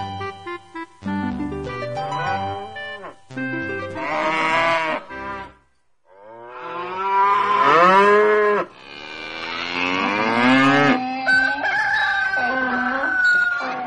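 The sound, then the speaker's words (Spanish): Cows moo loudly in a cow stable, several long, drawn-out lows following one another, with shorter animal calls at the start and no one speaking. “Una mañana estaba en el establo de vacas”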